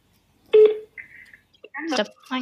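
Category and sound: signal or alarm, telephone call tones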